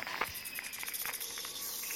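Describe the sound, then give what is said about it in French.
A fer-de-lance, an extremely venomous snake, gives a steady, breathy hiss that runs continuously for about two seconds, with faint scratchy ticks and chirping flecks, like insects, scattered through it. No one speaks. “C'est un fer de lance. C'est un serpent extrêmement venimeux dont les morsures paralysent.”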